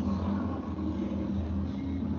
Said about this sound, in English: Still driving by lot of big trucks in your neighborhood, huh? It's a motorcycle, so oh. they, they they blast instead of having headphones like a fucking normal person, they blast their fucking radio like fucking cunts.